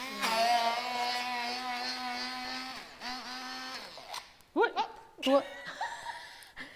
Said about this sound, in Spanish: Es que es una batidora un poquito... en casa tengo una batidora de pie que es más fuerte.